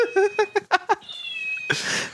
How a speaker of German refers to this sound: hat gerade einer Katze einen Stift reingeschoben. Ja, und die hat miaut. Den Popo. Die hat einen Anspitzer in sich, in ihrem Bauch.